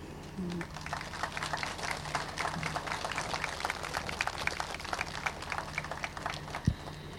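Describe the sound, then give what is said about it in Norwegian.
An audience applauds steadily for several seconds for the local residents, a dense, even patter of many hands clapping at once, at moderate volume, with no voices. “Så en stor applaus også til befolkninga.”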